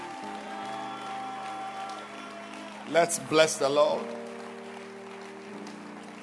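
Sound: audience clapping hands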